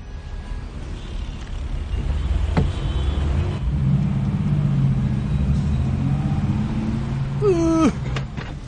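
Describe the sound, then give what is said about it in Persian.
A steady low rumble of street traffic with engines idling and moving, then a brief high squeal near the end, like a horn or squeaking brakes, with no talking. “ای بابا این ترافیک هم تیر اصلا دیگه داره ما رو دیوونه میکنه به خدا”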